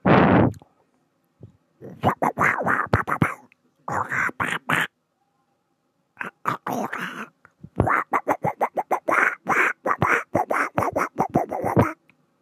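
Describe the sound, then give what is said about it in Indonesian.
A voice imitates Donald Duck's raspy, garbled quacking in rapid sputtering bursts, with a few short pauses between phrases, fairly loud, preceded by a brief loud breathy noise. “pengen niru suara-suara ah terinspirasi dari suara dona Bebek saya coba ya”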